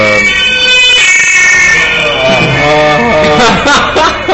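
A police siren wails loudly, its rising and falling tones sweeping continuously as the vehicle passes, filling the whole stretch with little else audible.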